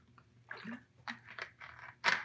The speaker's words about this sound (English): Give me a sip of water here. Hold on. Throat's a little dry. Stay hydrated, hydrated and happy.